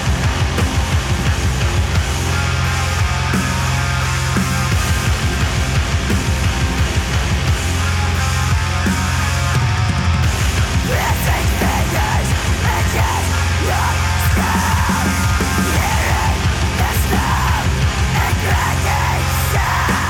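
Dense, loud heavy metal with pounding drums and distorted guitars, a harsh screamed vocal tearing over the top throughout, continuous and full-band for the whole stretch.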